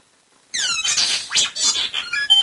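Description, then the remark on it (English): A mobile phone alert suddenly goes off, a bright, chirpy electronic jingle of quick warbling high tones that fills the moment at moderate loudness with no one speaking over it. “And, there goes Dylan's phone.”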